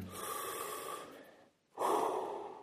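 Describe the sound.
A person imitates a newborn baby's breathing with two slow, airy breaths, one long inhale-like rush, a brief pause, then a fuller exhale, with no talking.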